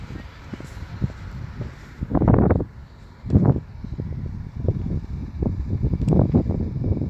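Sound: footsteps crunching on snow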